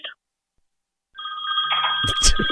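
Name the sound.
mobile phone ringing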